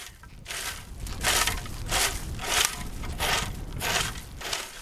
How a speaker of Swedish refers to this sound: Igår så samlades Lovisabor för en gemensam vårstädning. Talkodeltagarna samlade sopor längs Lovisavikens strand och de krattade också i strandparken.